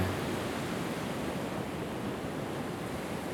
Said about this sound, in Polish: Za mną jest ocean. Bardzo głośny, potężny, lecz dzisiaj bardzo spokojny.